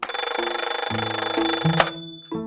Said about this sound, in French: Son réveil avait sonné à 7 heures pétantes.